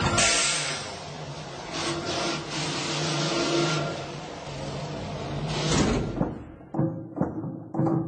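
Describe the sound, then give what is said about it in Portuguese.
Spacecraft doors unlock and steps lower: a sustained, hissing mechanical whir runs for several seconds, then gives way to a few sharp, heavy clunks near the end. No voices. “Destravando portas de acesso e degraus.”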